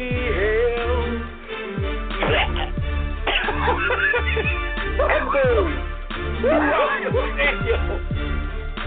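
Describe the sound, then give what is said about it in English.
A man in a stadium coughs heavily and repeatedly, loud, with harsh hacking bursts coming in a steady, rough rhythm for several seconds. “There is a pause throughout the stadium as this man sounds like he just coughs up a lung.”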